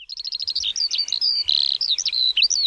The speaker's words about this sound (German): Warte mal, die Lerche ist das hier. Pass auf, Achtung.